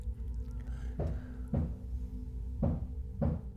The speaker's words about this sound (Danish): pludselig lyder der en banken øh, fra kælderen.